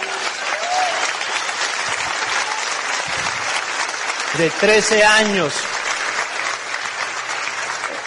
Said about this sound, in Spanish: Míralo, dale un aplauso por favor, está aquí.